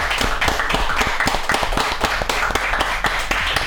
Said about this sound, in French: On lui offre un torrent d'applaudissements pour la fin Un torrent d'applaudissements pour la fin, oui, un torrent, une vague, hein